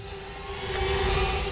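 A steady mechanical drone with a sustained whine from a Sucem insecticide fogging truck passing by, growing slightly louder over a brief moment with no voices.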